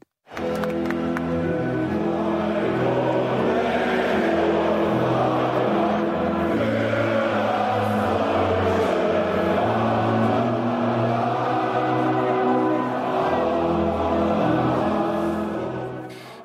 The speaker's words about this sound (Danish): det er altså stadig den sang, som tyskerne synger, når deres landshold spiller fodbold, som man kan høre her. Eller i hvert fald et vers af sangen.